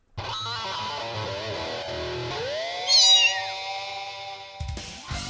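animal, cat meowing sound effect

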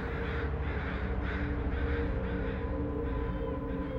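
bird, crows cawing

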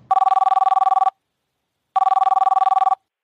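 signal or alarm, telephone ringing

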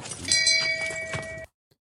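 sound effect, bell ring sound effect

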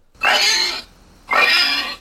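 animal, pig grunting

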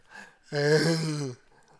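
human body sound, sharp inhale

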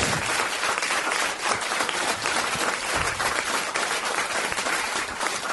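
crowd, audience round of applause

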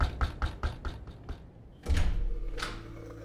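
household object, knocking on a door

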